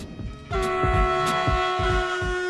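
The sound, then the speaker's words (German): A high-speed ICE train runs on tracks through a snowy landscape at the new Merklingen regional stop, travelling on to Ulm parallel with the new Interregio Express, loud, with a steady rhythmic clatter of wheels over rail joints and a sustained, multi-tone horn blast that starts after a half-second and holds throughout. “Der neue Regionalhalt Merklingen begrüßt den ICE in einer Schneelandschaft von dort aus fährt der Zug gemeinsam mit dem neuen Interregio Express parallel weiter nach Ulm.”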